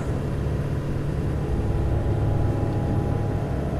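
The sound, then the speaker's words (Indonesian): A steady, low car engine rumble from a car now far behind drones on at an even level throughout, with no swell or fade of a passing vehicle and no voices. “Mobil itu sudah berada jauh di belakangku.”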